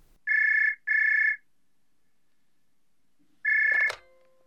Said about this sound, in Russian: а вот и первый телефонный звонок.